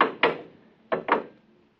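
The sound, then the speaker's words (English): A wooden door with a lock shuts with a pair of solid thuds, then another quick double thud follows a moment later, fairly loud, with no voices. “door's closed behind us.”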